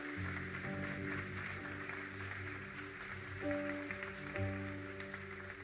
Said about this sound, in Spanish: Vamos a darle fuerte el aplauso al Rey.